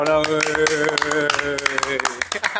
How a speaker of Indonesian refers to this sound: tepuk tangan dulu nggak nih pak tepuk tangan, tepuk tangan manual aja lah ya manual.